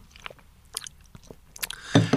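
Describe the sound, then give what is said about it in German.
Quiet, scattered wet clicks and small mouth noises, then a brief, louder hissing slurp at the end as someone sips a fizzy sparkling wine from a glass. No one speaks. “Und ähm, du sagst mir jetzt, wie das perlende oder die perlende Flüssigkeit in dem Glas schmeckt.”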